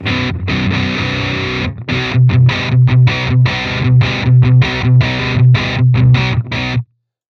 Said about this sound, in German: Ähm, das ist immer noch der Duo-Verb, aber mit einem Distortion davor.